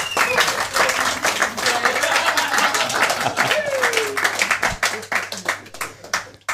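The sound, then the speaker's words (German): A crowd applauds steadily as a contestant is brought up on stage, dense overlapping claps at a loud, even level that thin out toward the end, with some voices and whistles mixed in. “Perfekt, großer Applaus und damit haben wir unseren Kandidaten hier für die Bühne.”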